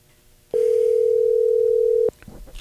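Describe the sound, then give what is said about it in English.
A loud, steady electronic telephone tone, as a call is placed to Vaughn Gittin Jr., holds for about a second and a half and then cuts off abruptly, followed by faint clicks and background noise. No one speaks. “So if you'd be so kind, please dial his number.”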